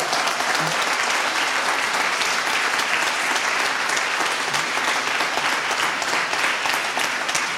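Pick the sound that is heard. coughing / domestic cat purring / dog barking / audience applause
audience applause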